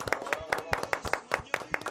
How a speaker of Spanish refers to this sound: Hoy Grupo IPS Vigiman cumple 28 años y evidentemente esto no puede pasar desapercibido. Muchísimas felicidades a nuestro Vigiman, señores. ¡Aplausos! ¡Bravo! ¡Bravo!